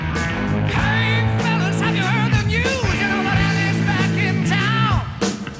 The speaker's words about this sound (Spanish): Tarrazo, batería a todo volumen y a gritar.